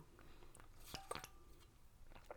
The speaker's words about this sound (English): Let me just take a sip of water here